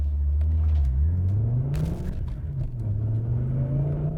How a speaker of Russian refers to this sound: И вот она, вот она. Турбина раскручивается после двух с половиной.